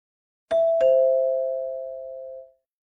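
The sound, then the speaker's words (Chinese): A two-tone doorbell chime at the iron gate of a villa in the Xingyue residential estate, pressed by someone who has just got out of a car: a higher ding followed quickly by a lower dong that rings out and slowly fades over about two seconds, with no voices. “沈西下车按了门铃，许久都没有动静。”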